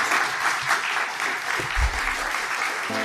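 Steady audience applause, a dense crackle of many hands clapping at an even, fairly loud level throughout, with a brief low thump or voice near the end.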